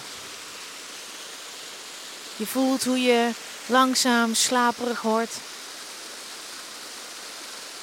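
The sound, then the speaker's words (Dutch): A steady, even rush of a waterfall fills the whole recording at a constant level, with a calm voice speaking briefly over it in the middle. “En laat je meevoeren door het geluid van de waterval.”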